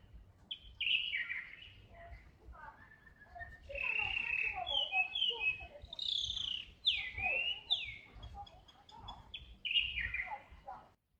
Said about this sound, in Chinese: 窗外的鸟叫声很动人，刚好现在还有，需要让你们听一听。